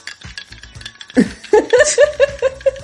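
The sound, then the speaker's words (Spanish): A small glass of pisco being poured, a quick run of about six rhythmic glugs from the bottle neck after a few soft taps, with no talking. “este es el sonido de un pisquito.”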